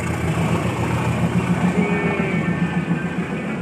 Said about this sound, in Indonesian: Ada kereta? Ada kereta kawan.